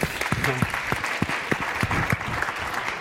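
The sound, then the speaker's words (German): Audience applause as a guest is introduced fills the whole stretch, a dense, steady patter of many hands clapping at an even loudness, with a few brief voiced tones rising out of it early on. “Ich darf auch ein Applaus kommen, natürlich.”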